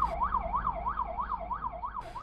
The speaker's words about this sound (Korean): 이제 사이렌을 키고 가고 있었는데 음. 앞에 버스가 있잖아요. 음. 그래서 이제 차선을 변경해서 빨리 가려고 차선을 변경을 했는데 음.